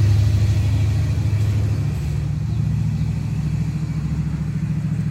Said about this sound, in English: Waiting for the loud truck to go by.